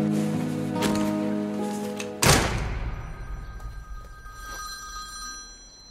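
A telephone bell rings steadily for about two seconds in the trailer for the film Avec amour et acharnement, directed by Claire Denis, then cuts off with a sharp clunk, like the handset being lifted, leaving a fading resonant ring and quiet background.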